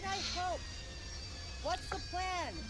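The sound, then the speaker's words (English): A Harrier jet landing: a low, steady engine rumble with a high turbine whine on top, loud, with several swooping tonal surges over a few seconds. “That's actually the sound of a Harrier jet taken from some Department of Defense videos of Harriers landing.”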